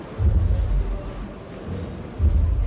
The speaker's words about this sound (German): wir hören ja nicht nur vielleicht mal die kleine …, sondern hier im Hintergrund so ein Pochern